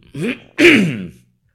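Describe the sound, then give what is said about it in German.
A person clears their throat twice in quick succession, a short rasp followed by a louder, longer one, with silence after. “jetzt musste ich mich räuspern, ich glaube, das schneide ich gleich raus.”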